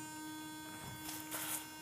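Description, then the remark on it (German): A quiet, steady electric ultrasonic toothbrush buzz hums continuously with a bright, tonal whine, holding even throughout with a slight swell of noise near the end, and no voices. “Also, man kann ja super mit der Zahnbürste singen, ne?”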